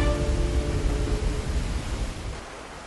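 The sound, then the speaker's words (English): A steady, dense roar of rushing water crashing down from an enormous mountain waterfall, mist filling the air, loud and continuous without a break. Nobody speaks. “The water crashed down, roaring like thunder.”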